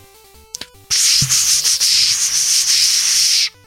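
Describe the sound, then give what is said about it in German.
A loud, steady rushing hiss, like water streaming past, imitates a flowing river for about two and a half seconds, preceded by a couple of soft clicks over a faint background tone. “Das ist der Fluss. Ach, das sollte ein Fluss sein.”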